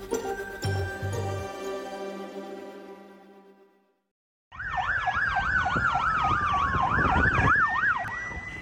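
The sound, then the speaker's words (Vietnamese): After a brief musical chime fades to silence, several police and ambulance sirens wail loudly outside Charles University in Prague after a shooting, their rapid rising-and-falling tones overlapping continuously until the end, with no talking. “Cảnh sát và xe cấp cứu có thể được nhìn thấy xếp hàng bên ngoài Đại học Charles khi những người bên trong được di tản.”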